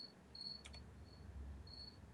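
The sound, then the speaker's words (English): A cricket at the speaker's home chirps in short, repeated high-pitched trills, fairly faint against a low steady background hum, with a brief clicking sound partway through. No one speaks. “God damn, that's a noisy ass cricket.”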